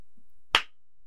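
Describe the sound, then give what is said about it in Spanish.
A single sharp hand clap, made to mark the start of a recording, rings out once, bright and percussive with a quick decay, surrounded by quiet and no talking. “Ok, yo voy a hacer el aplauso.”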